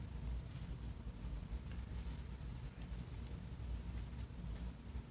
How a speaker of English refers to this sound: You sit there for a while and then as you sit there, the tree speaks to you. And when the tree talks, it sounds like this the wind goes through the tree.